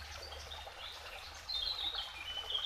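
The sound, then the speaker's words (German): A steady, soft trickle of flowing water runs throughout, with bright bird chirps joining in over the second half, slightly louder, in a calm outdoor setting. “Und gleichzeitig bringt dieses Fließen, dieses Plätschern des Wassers neue Energie in deinen Körper, in jede Zelle.”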